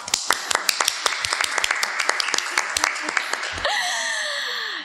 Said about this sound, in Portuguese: Salva de palmas, por favor.